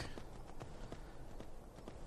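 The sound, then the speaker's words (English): Horse hooves trotting in a steady, even rhythm, a run of sharp clip-clop strikes over a constant background hiss, fairly quiet. No one speaks. “Trotting on a horse.”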